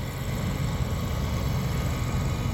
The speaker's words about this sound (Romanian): păi se aude plaja, e cu tractorul, ce? E un tractor pe plajă?